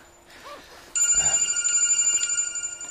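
mobile phone ringing

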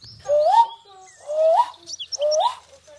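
long

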